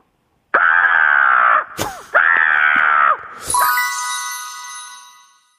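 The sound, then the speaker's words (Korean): A children's storytelling teacher imitates a crow with two long, harsh, drawn-out caws, followed by a bright ringing chime that slowly fades out. “아이들한테 아, 동화 구현해 주시면서 실제로 이렇게 까마귀 소리를 내주면 우리 아이들이 얼마나 좋아하겠습니까?”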